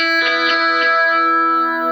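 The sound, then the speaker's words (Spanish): An electric guitar played through a preamplifier into an amplifier rings out with a light, gritty distortion from a harder picking attack, a few quick picked attacks blooming into a sustained chord that hangs evenly and fairly loud, with no voices. “Pero si uno le da más ataque, suena con una distorsión, tampoco es tan fuerte.”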